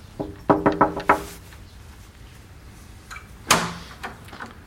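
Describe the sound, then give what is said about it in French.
A quick series of about five firm, resonant knocks on a wooden front door of a house in l'Esconil, southern Finistère, followed after a pause by a single heavier thud, like the door being opened or bumped. “Forcément, on l'a prévenu, donc on va aller frapper et puis aller le rencontrer et discuter de son métier.”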